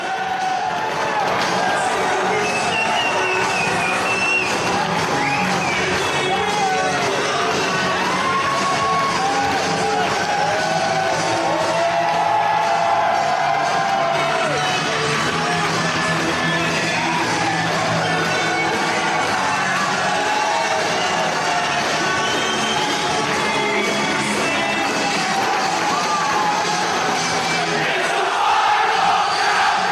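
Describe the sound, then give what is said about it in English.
A big arena crowd roars and cheers without letup, many voices shouting and yelling together over an entrance theme, heard in the in-arena version of the theme, staying loud and dense from start to finish. “And in order to get through these, this one, I'm going to play the in arena version”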